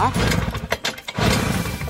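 An old Puch moped engine in Salling sputters and strains to start, its uneven putter briefly dying away before catching again; loud.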